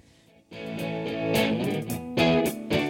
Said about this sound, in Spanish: vámonos a Spotify, que es desde donde suena esta canción que estamos escuchando ahora mismo